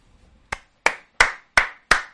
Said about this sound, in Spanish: Un aplauso ahí de fondo, que no me dejáis aplaudir.